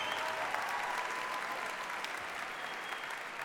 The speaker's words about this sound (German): Okay, gib mir ein bisschen einen großen Applaus.